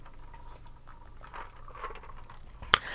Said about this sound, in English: All right, let me get comfortable. Let me get comfortable. Let me take a little sip. One second.